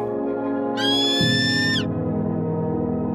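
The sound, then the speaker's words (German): A large bird of prey, one of the largest birds of prey in the world, lets out a single shrill, drawn-out cry lasting about a second, falling slightly in pitch at the end, over a steady low droning background. “Er gehört zu den größten Greifvögeln der Welt und kennt diese abgelegenen Regionen nur zu gut.”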